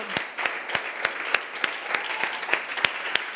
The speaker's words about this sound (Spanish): Y le daremos un aplauso fuerte al, al Dios de la Biblia.